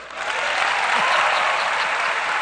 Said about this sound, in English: Turn around and clap for them.